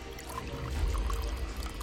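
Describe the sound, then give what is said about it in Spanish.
Water pours steadily into a glass for a couple of seconds, a continuous splashing stream with a faint rising gurgle and no voices. “Le cedieron un vaso de agua y la condujeron hasta una oficina apartada del bullicio con el objetivo de poder lograr conversar más tranquilos con ella.”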